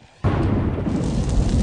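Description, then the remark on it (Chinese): Thunder bursts in suddenly after a brief quiet moment, then keeps rolling as a loud, deep, steady rumble with a crackling, noisy texture, in a heavy June downpour. No voices are heard. “时值六月，雷声隆隆，大雨倾盆”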